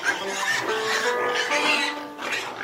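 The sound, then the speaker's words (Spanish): A pig squeals in high, shrill bursts that run together for a few seconds, loud, with no talking over it. “Se llamaban cerdas porque los pelos se arrancaban a tirones del cuello de los cerdos.”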